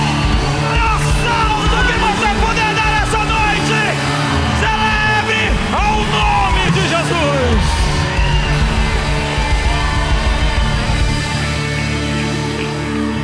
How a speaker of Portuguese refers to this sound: É o maior grito que você puder dar essa noite. Você é livre para gritar, para pular, deu um bom pulo.